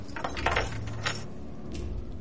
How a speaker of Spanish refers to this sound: Lucille sonríe y deja las llaves en la mesa.